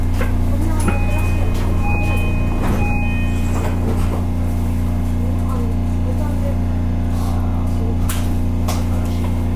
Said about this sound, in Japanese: ドアが閉まりますご注意くださいドアが閉まりますご注意ください